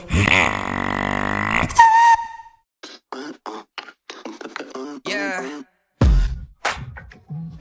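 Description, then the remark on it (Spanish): A beatboxer imitates a motorcycle engine with a loud, buzzing, revving rumble for about a second and a half, followed by a brief whistle-like squeal and then people talking. “Una moto.”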